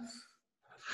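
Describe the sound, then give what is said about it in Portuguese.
An abrupt sneeze: a breathy, hissing burst, a brief pause, then another sharp, noisy blast that swells loudly at the end. No one is speaking. “Saúde.”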